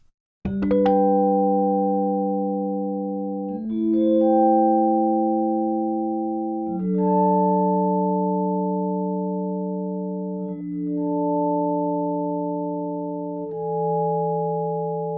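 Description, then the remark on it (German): Five sustained electric piano chords play one after another as the Attack setting is varied, each ringing for about three seconds. The first begins with a sharp strike, while the later ones swell in more softly. No one speaks. “Da haben wir drei Parameter, die wir schon hatten. Color, Tonal Shift und Dynamic Range. Neu ist jetzt hier aber die Attack.”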